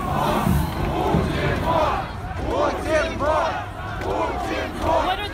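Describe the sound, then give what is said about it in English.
A protest crowd in Russia, at Vladimir Putin's fourth inauguration, chants in loud, rhythmic bursts, many voices rising together roughly once per second over a continuous crowd roar. “chanting?”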